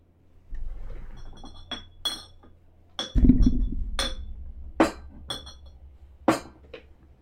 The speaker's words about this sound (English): They heard banging and a clinking of glasses.